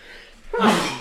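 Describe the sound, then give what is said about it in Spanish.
A single sharp sneeze bursts out after a brief quiet inhale, loud and explosive before trailing off. “Salud. Perdón, perdón.”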